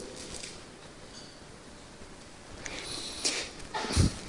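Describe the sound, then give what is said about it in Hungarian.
A single sneeze bursts out near the end after a quiet stretch, preceded by a couple of brief breathy sniffs. No one speaks. “egészségedre.”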